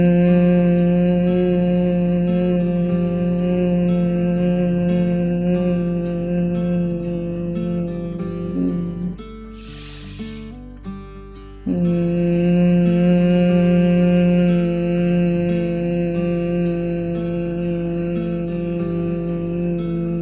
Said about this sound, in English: Now seal the lips, breathe in, and begin with the humming on your exhale. Mm. When you're ready for your next breath, just breathe in and continue with that humming.